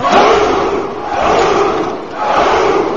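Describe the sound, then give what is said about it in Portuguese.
A loud, sustained battle cry from a crowd of Spartan soldiers in a video game, shouting as they go to attack, their massed shouting swelling and dipping in three long waves with no pauses and no separate speech. “E, e todos eles gritam quando vão atacar?”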